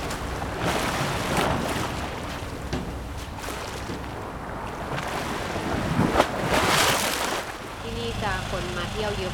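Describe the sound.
Ocean waves wash and break on the shore at Pranburi, along a coast lined with concrete seawalls, in a steady roar, with a few louder surges, wind buffeting the microphone, and faint voices toward the end.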